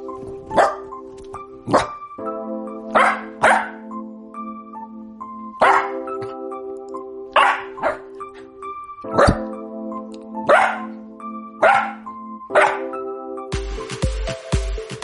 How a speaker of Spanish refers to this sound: Y bueno, hasta el perro de Romina, nuestra jefa de información, tiene una opinión.